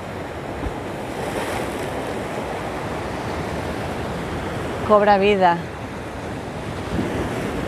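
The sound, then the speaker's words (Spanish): Ocean waves wash steadily onto the shore in a continuous, rushing roar with a hint of wind, while a voice briefly speaks over the surf partway through. “con la energía del mar, con la intensidad de las olas que entra mientras respiras.”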